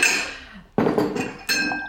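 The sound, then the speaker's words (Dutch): A large white ceramic mug clinks three times as it is handled, each sharp knock fairly loud, leaving a brief bright ring that fades before the next one. No one speaks. “Dit is dan zo'n grote, lompe, witte kuip.”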